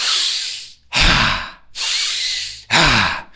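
Loud, deep breathing demonstrating a tantric breathwork exercise: two rhythmic cycles of a long, forceful inhale while tensing the whole body, followed by a rougher, sighing exhale, with no talking.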